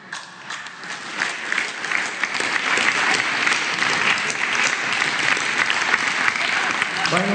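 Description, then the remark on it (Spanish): Sustained applause from the audience at a press conference in Mexico, marking the International Day of Older Persons; steady dense clapping swells after a moment and continues for several seconds at moderate loudness, without any speech. “Un aplauso.”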